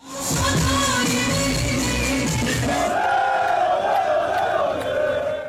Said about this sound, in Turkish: Dün Hatay ve Kocaeli'de üst lige çıkmanın coşkusuyla dolup taşan sokaklar böyle yansımıştı kameralara.